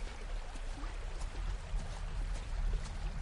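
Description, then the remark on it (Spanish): A river flows steadily, a continuous rushing wash of water with a low rumbling undertone and faint splashy flickers throughout. No one speaks. “Sara se para y mira hacia el río.”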